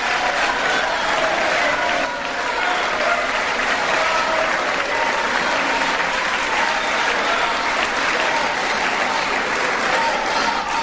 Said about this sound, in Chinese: 先是鼓掌啊，接着就喊口哨了，呃，马上就开始喊口号了。